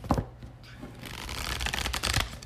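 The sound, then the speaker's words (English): Rustling and flicking of a deck of animal oracle cards being shuffled before a card is drawn, with a sharp tap at the start and a denser riffle building toward the end, moderately loud. “an animal ken card for you and see what kind of animal characteristics you need to embody.”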